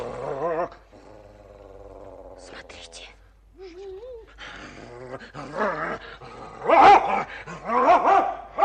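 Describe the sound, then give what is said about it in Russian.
A dog named Dingo growls low and then breaks into several loud barks and snarls near the end, with a person speaking briefly in between. “Вот почему собака Динго так ненавидит Негоро.”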